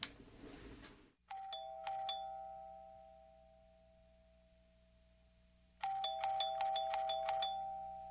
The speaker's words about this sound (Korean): 어 근데 진짜 막 띵동띵동 아, 되게 신경질적으로 띵동띵동 네. 띵동 하잖아요. 안 나오니까.